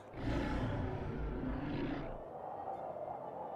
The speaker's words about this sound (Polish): Coś podchodzi, nie macie siły się ruszyć po czym w ciemność unosi się ryk.